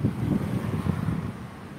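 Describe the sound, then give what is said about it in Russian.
Steady outdoor wind, partly died down but still blowing, rumbles and buffets the microphone with low, gusty roaring that fades slightly toward the end. No one speaks. “Хочу вам сказать, что ветер отчасти притих. Хоть он и пока дует”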